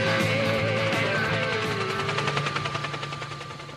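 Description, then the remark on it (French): A dense, loud din of metallic banging and clattering from many sources at once as prison inmates bang on their cell doors and bars, with rapid repeated impacts and shouting voices mixed in, heard from a window. “Ils tapent dans leur port, dans leur barreau, tout, ça crie, ça dit que c'est l'appel à bloquer demain.”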